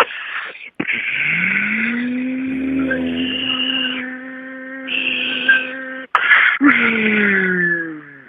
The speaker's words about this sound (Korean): MB, MB 청소기 가볼게요. 먼저 청소기 소리를 들려드리면 네.